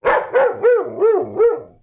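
A dog barks five times in a quick, even rhythm, each bark loud with a rising-then-falling pitch, the first two rougher and the rest more tonal, with no talking.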